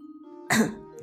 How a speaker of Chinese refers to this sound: 说到这里，寒山咳嗽一声，严肃地说